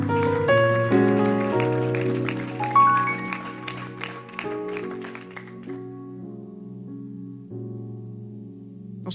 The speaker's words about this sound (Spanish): Puedes darle un aplauso a Dios.